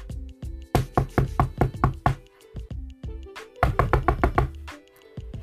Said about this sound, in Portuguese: E então aquele lobo seguiu pela floresta e quando chegou perto da casa da vovó, ele então bateu na porta.